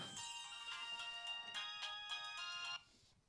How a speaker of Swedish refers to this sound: Och nu ringer det också.